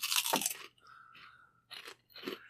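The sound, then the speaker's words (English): Loud crunching of pork rinds from a tub: one big brittle bite up front, then a few quieter chewing crunches in short bursts, with no talking. “And uh, uh, so he grabs one and crunches down, and he grabs another one almost immediately.”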